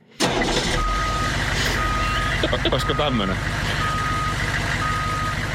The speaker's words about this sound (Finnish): kyllä tämä piippaus alkaa pidemmän päälle ottaa kyllä. niin, niin mutta kaikki kuulee.